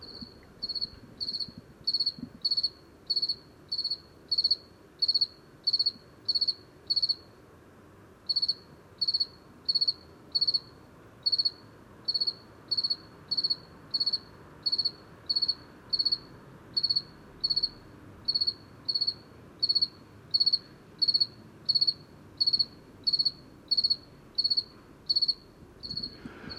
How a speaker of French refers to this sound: Il est 20h30, il fait 10 degrés. Je suis euh, au centre du village de Lucandiwa et euh, j'enregistre un grillon de Provence, un grillon provençal, Gridus bimaculatus